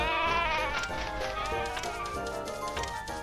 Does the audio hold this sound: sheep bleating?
yes